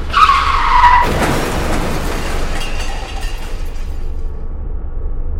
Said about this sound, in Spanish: De inmediato se imaginó de que se trataba de dos automóviles que habían chocado fuera de su casa.